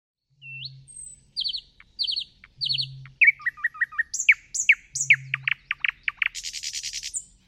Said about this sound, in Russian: Смотрите, вот давайте послушаем песню Соловья несколько вариантов. Допустим, один вариант.